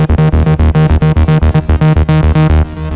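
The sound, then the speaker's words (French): A loud, bright synthesizer plays a rapid, pulsing pattern of notes, each one repeating in quick rhythmic echoes from a delay effect, with no voices. “Par exemple, la reverb, le délai,”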